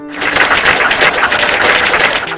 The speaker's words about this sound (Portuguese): Mas até onde eu sei, ele é a única pessoa que comprou uma licença do Blue Beep. É é, palmas para ele.